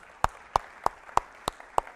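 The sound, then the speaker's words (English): Applause for God from a church audience at a morning service, heard as six sharp claps in a steady, even rhythm about a third of a second apart, with no talking over them. “Give our God some applause this morning.”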